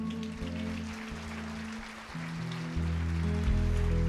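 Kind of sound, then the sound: crowd, audience applauding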